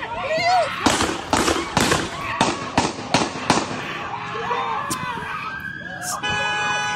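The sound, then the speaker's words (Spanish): A rapid burst of seven loud gunshots fired in quick succession by police at a man who reached into a car, sharp, with agitated voices shouting around them in a noisy street scene, from recorded footage. “O sea, como que si con un disparo no fuera suficiente, no hay que darle siete balazos para que, para que amarre.”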